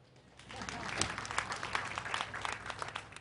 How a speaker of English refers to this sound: Clap for him.